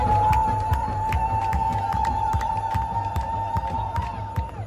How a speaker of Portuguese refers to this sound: Inclusive nas partidas de futebol. Dentro do estádio, a torcida é mista. Tinham muitas mulheres na arquibancada empolgadas na torcida.